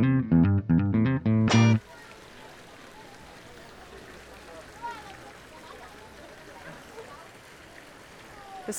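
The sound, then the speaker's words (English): Steady rushing roar of a steamy waterfall pouring down in one single huge stream into a semicircular amphitheater carved in the rock close by, a continuous wash of water noise that follows a brief burst of bright tonal sound at the start. “steamy waterfall pouring down next to us as we sit in these.”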